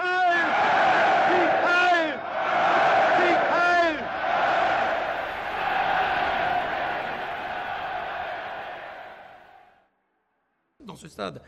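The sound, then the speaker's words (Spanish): A massive stadium crowd of about 100,000 Germans, arms outstretched, chants "Heil Hitler" in unison, loud shouted bursts roughly every two seconds over a sustained roar that slowly dies away, then a brief voice speaks. “pudimos ver a 100.000 alemanes con el brazo extendido gritando al unísono Heil Hitler para que el mundo entero lo escuchase”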